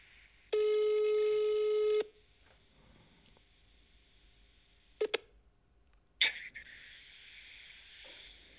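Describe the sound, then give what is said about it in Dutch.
One long, steady telephone ringing tone plays through a phone handset held against the microphone, tinny and clear. Faint line hiss follows, then a few sharp clicks as the call connects to an open, hissy line. “Nou ja, ik ga hem gewoon even bellen.”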